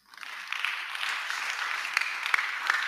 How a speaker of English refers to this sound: Clap for Jesus.